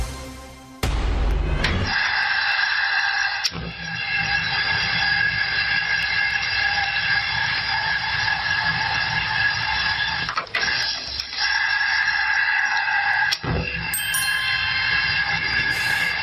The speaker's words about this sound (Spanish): Bueno, esto que no es un cepillo de dientes automático, no, no, no, no, no, es un horno, es un horno.